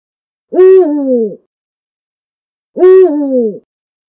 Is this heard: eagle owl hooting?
yes